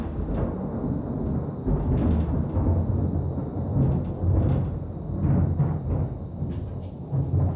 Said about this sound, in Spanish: Si sí, se escuchan truenos de fondo, es que estamos en temporada de tormentas, que no debería ser.